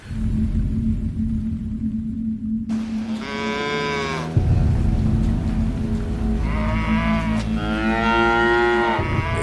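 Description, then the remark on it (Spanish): Several cattle bellow in long, drawn-out moos, one after another with overlapping calls, loud over a steady low rumble of background noise. “viejo campesino explicó que cuanta res oyera aquellos bramidos iría al sitio, aunque tuviera que caminar horas y horas.”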